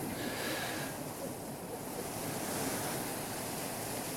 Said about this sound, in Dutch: En de storm hier is ook overweldigend, want u hoort het ruisen van de regen op het dak. Dat is een storm Pia die nu rondgaat.